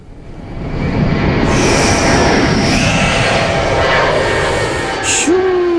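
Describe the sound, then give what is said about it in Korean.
A jet airplane taking off, its engine roar swelling quickly to a loud, steady rush with a high whine on top, sustained throughout, with no voices. “일부에 나가는 노래에 이 비행기 이륙 소리를 숨기겠습니다.”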